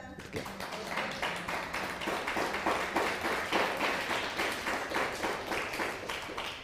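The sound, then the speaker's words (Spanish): Sustained applause from a crowd for a sister, during a Bible teaching, many hands clapping in a dense, steady patter that holds at a fairly even level throughout, with a faint murmur of voices underneath. “Denle un fuerte aplauso a la hermana.”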